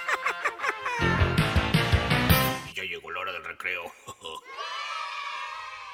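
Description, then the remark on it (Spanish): A noisy crowd of children shouting and yelling together at recess, loud, with overlapping high voices rising and falling like a busy playground. “Y ya llegó la hora del recreo.”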